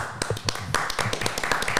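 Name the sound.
hand clapping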